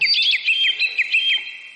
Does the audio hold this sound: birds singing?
yes